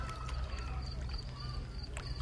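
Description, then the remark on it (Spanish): River water laps and splashes steadily against the trunks of camichín trees at night, with a constant low rumble and small gurgling bursts throughout, moderately loud, with no voices. “El chapoteo del río contra los troncos de los camichines”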